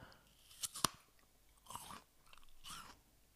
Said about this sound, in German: ich esse jetzt nochmal kurz einen Apfel, um euch bei der Entscheidung vielleicht ähm, zu helfen